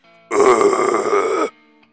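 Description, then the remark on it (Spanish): A voice imitates a guttural metal growl: one loud, raspy, rumbling roar held steadily for just over a second, then cut off abruptly into quiet. “pura pinches rolas medias locochonas y bien ácidas, bien ja Que se escuchan así con unos gruturales de...”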